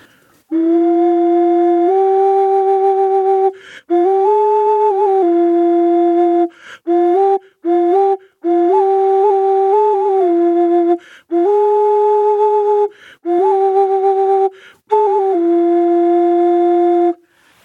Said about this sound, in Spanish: Yo puedo tocar la ocarina más chiquita, que es una palomita, la primera que toqué, la puedo tocar junto con la más grande y el sonido no, no es disonante, inclusive es muy agradable.